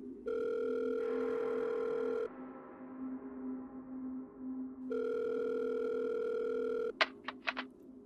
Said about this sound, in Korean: 당황해서 휴대폰을 주워 집으로 전할 거니 이번엔 정상적으로 통화 연결음이 들려왔다. 언제나 듣던 그 연결음마저 너무나 반가워서 눈물이 날 정도였다.